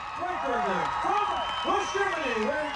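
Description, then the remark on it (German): A large Olympic crowd applauds and cheers after a flawless, gold-winning ski ballet routine, a dense steady wash of clapping with voices rising and falling over it, fairly loud throughout. “Das Publikum ist begeistert.”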